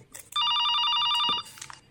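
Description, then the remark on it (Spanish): A telephone rings once, a loud burst of rapid electronic trilling lasting about a second, then cuts off, leaving faint background noise. “Bien, voy a ir al teléfono, más mejor, como decía el gran Leonel Sánchez.”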